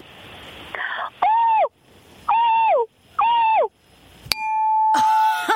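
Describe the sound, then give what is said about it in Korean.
A weather forecaster's voice imitates a dolphin with three high, squeaky whistling calls, each rising then falling, evenly spaced, followed by a sharp click and a long steady whistle, loud with no talk. “자, 돌고래 한번”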